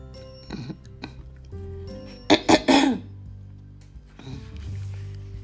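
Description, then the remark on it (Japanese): A loud burst of three quick coughs in the middle, surrounded by quieter throat-clearing rasps and breathy hacking sounds from the same voice, a person with a clogged throat, with no speech. “ちょっと喉がね詰まってますけども”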